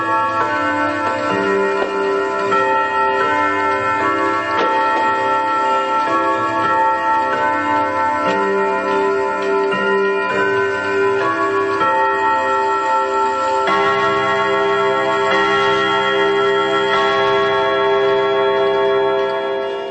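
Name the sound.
loud clock ticking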